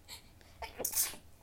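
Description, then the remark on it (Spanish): A single sneeze bursts out, a quick sharp intake followed by a loud breathy explosion that fades within a second. “Salud.”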